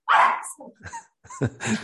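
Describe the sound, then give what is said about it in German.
A female dog barks sharply, one loud bark followed by a few shorter, softer yelps and barks in an uneven burst, with no one talking. “ich habe nämlich einen Hund, der Musik zwar liebt, weil sie das natürlich von Welpenbeinen an gewohnt ist, aber Applaus hasst sie.”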